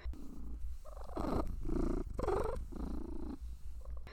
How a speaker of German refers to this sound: Und dann fängt sie an zu schnurren. Sie hat vorher noch nicht geschnurrt, aber dann blinzelt sie, pfotelt wieder ein bisschen, drückt auch ihr Wohlbehagen aus und dann läuft der Motor und dann schnurrt sie.